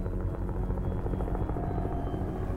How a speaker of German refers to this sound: Und eine halbe Stunde hat es gedauert, bis der Helikopter gekommen ist. Dann sind sie auf mich zu und sind in die richtige Flanke rein, so ungefähr auf meiner Höhe. Und dachte ich noch so, wow, geil, krass, die, die kreisen voll weit oben.